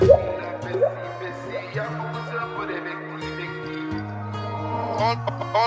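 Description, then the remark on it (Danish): A new hip-hop single starts up loud, with deep sustained bass notes stepping between pitches under bright melodic synth layers; no vocals come in yet. “så synes jeg, at vi skal spille Ice Kids nye single, Drippy”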